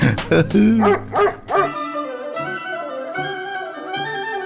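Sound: dog barking and whimpering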